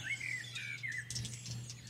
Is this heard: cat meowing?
no